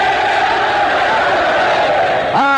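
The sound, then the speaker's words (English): A large crowd of sailors aboard an aircraft carrier shouts Christmas party greetings together, broadcast all over the world, in a loud, sustained roar, voices blending into a dense wall of cheering that swells near the end as one voice rises above it. “Would you like to shout your greetings to everyone listening in?”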